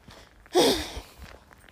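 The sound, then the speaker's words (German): Footsteps crunch along as someone walks through a park past the bushes at its edge, with one loud scuffing step followed by a couple of fainter, softer steps in a loose walking rhythm. No one speaks. “Und so kann ich einfach herumlatschen.”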